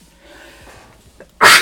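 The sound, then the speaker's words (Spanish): A single loud sneeze bursts out suddenly at the end, following a stretch of faint, quiet background with a small breathy intake just before it. “Salud.”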